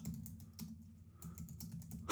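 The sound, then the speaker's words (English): Someone types on a computer keyboard: a quick, uneven run of soft key clicks, fairly quiet, with no voices. “I hear you typing over there”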